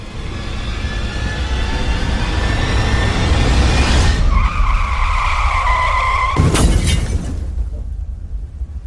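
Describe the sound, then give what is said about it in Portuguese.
During a heavy rainstorm, a car skids with a rising tire squeal, then crashes into a tree beside a rain-swollen torrent with a sharp crash around the middle, followed by a fading rumble; loud, no voices. “Clarice enfiou seu carro numa árvore beirando a corredeira formada pela chuva.”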